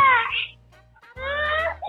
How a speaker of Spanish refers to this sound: Llora llora el nene o la nena. Sí, a la nena.